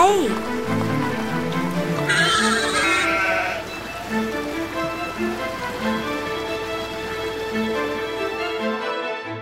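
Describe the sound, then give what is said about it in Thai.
A goat, led away from a cliff by a boy along with a donkey, bleats in wavering, nasal calls. A quivering cry comes at the start and more bleats follow, over a steady rain-like patter with a brief bright hiss partway through. “ว่าแล้ว เจ้าเด็กก็ได้จูงลาและแพะ เดินจากบริเวณหน้าผาแห่งนั้นไป”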